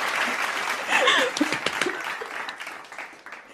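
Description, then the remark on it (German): A crowd bursts into steady applause, a dense wash of many hands clapping that peaks early with a few voices cheering over it, then gradually thins and softens toward the end. “Bitte einmal Applaus für mich.”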